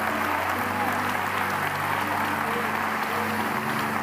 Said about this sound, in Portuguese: Quantos podem dizer amém? Dar um aplauso ao Rei dos Reis.